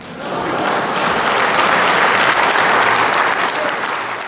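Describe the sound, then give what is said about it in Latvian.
An audience applauds steadily after a speech, dense clapping building quickly and holding at full strength for several seconds, loud, with no voices. “Un aplauss ar skanēja vairāk kārt.”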